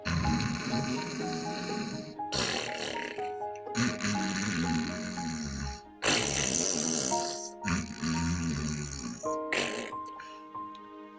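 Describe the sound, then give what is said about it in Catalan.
Loud, drawn-out snoring of a wolf lying by a river rises and falls in several long breaths, over steady background music with sustained tones. “Agafa un, un gabinet ben gran i ben afilat, aulla i fil, i anem al riu i allà que se'n van anar, se'n van posar darrere d'un arbre i, efectivament, allà estava el llop tombat al, a vora riu, roncant.”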